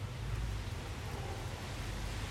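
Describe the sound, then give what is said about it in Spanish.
Steady, dense rain hisses without a break, an even wash of noise with a low rumble underneath and no voices. “ruido de lluvia.”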